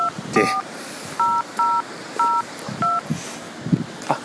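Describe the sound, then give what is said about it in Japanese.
A phone number is keyed in as a quick run of about six touch-tone beeps, each short and evenly spaced, set against faint background noise and a few soft clicks. “あそっかこんな寒い時はそやあれを呼べばええかえーと電話番号がえーとうんとこれで”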